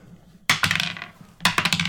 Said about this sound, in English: Well, no, fine. Let's roll dice and figure it out. Okay.